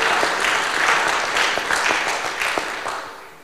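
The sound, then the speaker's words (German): An audience at a Good Friday gathering in the open youth work, not in the Michaeliskirche, applauds steadily, dense overlapping claps forming a continuous wash of sound that stays fairly loud before tapering slightly at the end. “Applaus”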